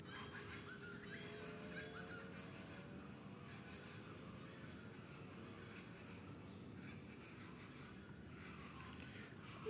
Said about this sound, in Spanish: Le regalé 10 segundos de naturaleza y usted dijo, ¿a qué hora comienza? Pero eran 10 segundos de la naturaleza. Le voy a dejar otros 5 para ver si las aves tímidas hacen lo suyo.